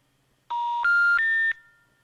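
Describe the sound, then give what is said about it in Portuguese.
Three quick telephone keypad tones in a row as someone dials the municipal hospital, each a steady electronic beep rising slightly in pitch, clear with no one speaking. “Liga para o hospital municipal para pedir apuração para saber do que está acontecendo e dá isso aqui.”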